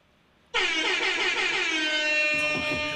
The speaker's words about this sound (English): I'm gonna give you some air horns, man, because goddamn.